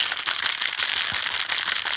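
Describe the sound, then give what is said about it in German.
A cold spray can is shaken steadily as a stand-in cocktail shaker for a couple of seconds, giving a continuous hissy rattle with quick repeated clicks, moderately loud, with no one talking. “Jetzt schüttelt er gerade seine Sprühdose, weil er hat natürlich keinen echten Shaker.”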